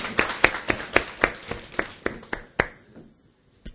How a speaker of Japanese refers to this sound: ハレルや神様に拍手を送ります